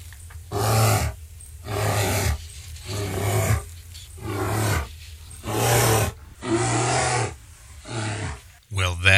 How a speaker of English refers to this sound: is a grizzly bear. And grizzly bear is, is a really a misnomer for this creature. This is really a brown bear. They're also found besides North America, they're found in Asia and in Europe.